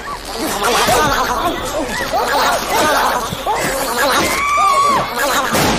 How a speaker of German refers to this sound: das Geräusch, was die Monster machen